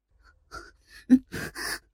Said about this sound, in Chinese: 身躯靠在他怀中，发出急促的喘息声。